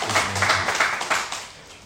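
An audience at a church worship service applauds in a steady wash of many hands clapping at once, with a low sustained tone underneath, and the applause tapers off toward the end.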